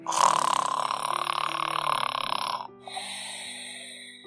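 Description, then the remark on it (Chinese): A mother tiger's deep, rough purr rumbles steadily through one long exhale, then pauses briefly before a second, slightly softer stretch, as her two cubs nestle against her and fall asleep. No one speaks. “当一天就要结束的时候，两只小老虎都依偎在虎妈妈怀里，听着虎妈妈的呼噜声入睡。”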